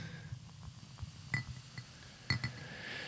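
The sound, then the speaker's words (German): Beer is poured into a glass held near the microphone, with a couple of sharp glassy clinks and a soft fizzing rush of liquid building toward the end; no one speaks. “Ich näher ans Mikro. ja. Beim Einschenken.”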